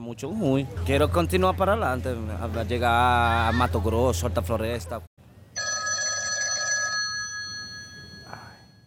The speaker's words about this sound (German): Das Telefon hört in jenen Tagen nicht auf zu klingeln.